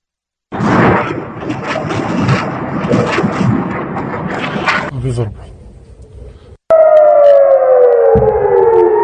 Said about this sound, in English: You're listening to the sound of Iranian rockets taking off from Syria on their way to northern Israel. Last night, the Iranian Quds Force launched their first attack ever on Israel from inside Syria.